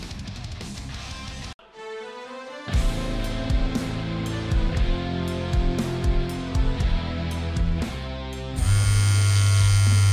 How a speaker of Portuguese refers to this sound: A gente tem muita coisa para conversar hoje, mas a gente vai fazer isso depois desse primeiro bloco, então vamos subir a vinheta, a gente já volta conversando